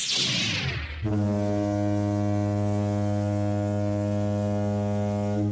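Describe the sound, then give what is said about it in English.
A deep, blaring horn blast like a foghorn, sounded as a spoiler warning before discussing a movie, holds one loud steady note for several seconds after a brief noisy whoosh at the start, with no voices. “But sound the spoiler horn.”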